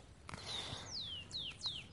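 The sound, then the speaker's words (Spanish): Several thin, high whistled bird notes sweep downward one after another, clear against a soft outdoor background with faint scratchy rustling. No one speaks. “Voy a estar aquí un ratito para que también tú puedas eh, escuchar la música de las aves.”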